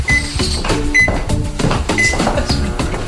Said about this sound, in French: Viens, on va faire sonner le micro-ondes